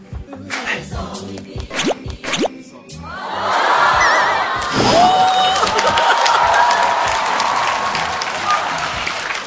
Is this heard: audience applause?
yes